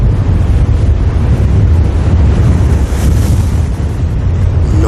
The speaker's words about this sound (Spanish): El único sonido es el viento a través de las malas hierbas tolerantes al ácido.